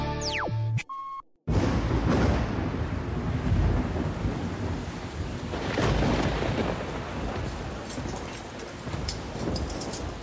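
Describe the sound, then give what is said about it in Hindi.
Heavy rain pours steadily with deep rumbles of thunder rolling through, loud, after a brief electronic sweep and tone at the start. No one speaks. “अरे यार ये बारिश तो रुकने का नाम ही नहीं ले रही मुझे लगता है आज रात हमें यही रुकना पड़ेगा”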